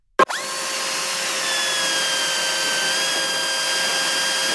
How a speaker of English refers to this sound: The police started drilling and uh, says they're drilling because they want to put in gas.